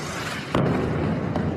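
A bomb explosion from the fighting between Israel and Gaza bursts suddenly out of a steady, noisy background and leaves a sustained low rumble, followed by a fainter second thump shortly after. No voices are heard.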